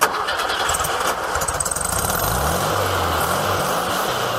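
The combustion engine of a classic white Volkswagen Beetle, a wedding car since converted to electric, cranks for about two seconds, then catches and settles into a steady, loud idle with a throaty rumble. No one speaks.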